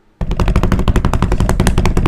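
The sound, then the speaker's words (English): A loud, rapid drumroll erupts after a brief silence, sharp hits repeating quickly and evenly for about two seconds with heavy low thump and crisp attack, no voices over it. “The drums.”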